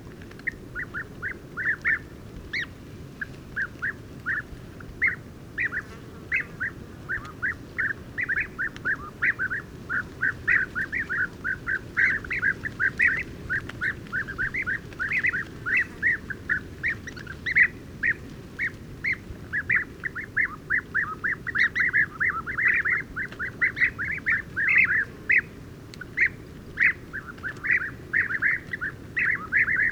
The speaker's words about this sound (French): Je suis au pied d'un grand acacia dans un oasis. Un groupe de guépiers d'Europe a passé la nuit, 19 individus. Je les ai enregistrés hier soir alors qu'il y avait du vent.